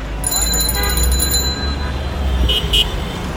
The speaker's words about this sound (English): Walking around Dhaka now, it's really, really busy. It's full of people. You hear rickshaws and cars.